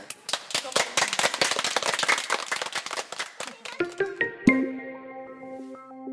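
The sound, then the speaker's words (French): Children applaud in a dense, irregular burst of sharp claps for about four seconds, then the clapping thins out as a few sustained musical tones ring in after one final loud clap. “Faites un applaudissement pour.”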